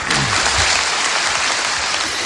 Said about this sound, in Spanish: Qué buenos aplausos.